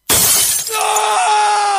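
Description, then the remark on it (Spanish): Phone screen glass shatters in a sudden loud crash, a dense burst of breaking glass that gives way to a sustained, bright ringing tone lingering to the end. “¿Se te rompió el celular?”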